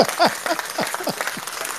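A short burst of applause: dense, crackling claps running steadily for under two seconds at moderate loudness, with no voices over them.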